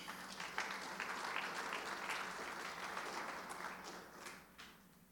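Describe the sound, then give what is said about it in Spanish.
A crowd applauds vigorously for Jesus during a sermon, a dense wash of many hands clapping at once, sustained for several seconds before gradually thinning and fading toward the end. “Dele un aplauso fuerte a Jesús.”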